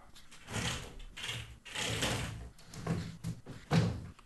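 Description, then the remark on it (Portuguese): A window being slid shut: several rough, scraping and rattling bursts of movement over a few seconds, ending in a firmer knock as it closes. No one speaks. “Deixa eu ver se eu fechando aqui a janela melhor.”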